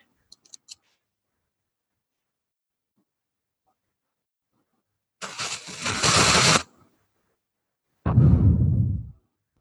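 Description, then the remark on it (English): A few faint clicks, then a match strikes with a loud scraping hiss that flares for over a second, followed by a second strike that bursts into a deeper, rumbling whoosh. “And I love these matches. They're so cool.”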